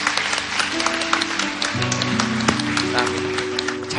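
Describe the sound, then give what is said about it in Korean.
A crowd applauds steadily for several seconds for the children, a dense wash of clapping with soft tonal music humming underneath. “우리 아이들한테 여러분 박수 한번 부탁드리겠습니다.”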